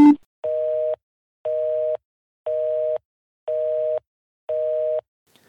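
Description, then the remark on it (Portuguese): A telephone voicemail tone, heard as a call is forwarded to voicemail, beeps five times in a steady, even rhythm, each beep about half a second long with equal gaps of silence between them, clear with no voices. “Sua chamada está sendo encaminhada para a caixa postal e estará sujeita a cobrança após o sinal.”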